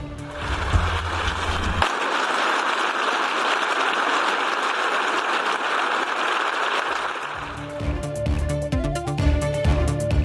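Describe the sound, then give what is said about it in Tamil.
Members of the European Parliament applaud after the Ukrainian president's video address, a dense, sustained wash of clapping that swells for several seconds before music with a low rhythmic beat cuts in over it. “ஐரோப்பிய நாடாளுமன்றத்தில் காணொலியில் உக்ரைன் அதிபர் பேச்சு கைத்தட்டி பாராட்டிய உறுப்பினர்கள்”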